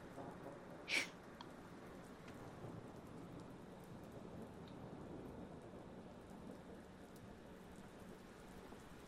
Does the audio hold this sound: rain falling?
yes